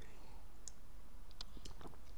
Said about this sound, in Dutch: Even een slokje water, want mijn mond is alweer droog.